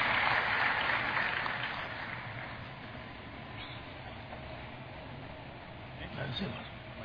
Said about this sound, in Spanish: Y le damos un buen aplauso al Señor y nos sentamos, hermano.